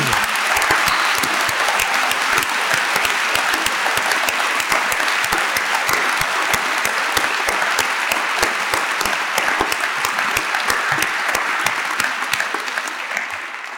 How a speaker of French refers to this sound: Je voudrais qu'on fasse un triomphe dans la joie, la bonne humeur pour cette quatrième édition des Assises.